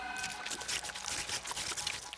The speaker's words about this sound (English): Soon, they came to another river. This one actually was made of water, but something moved in the riverbed.